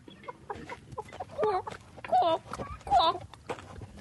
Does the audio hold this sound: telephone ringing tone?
no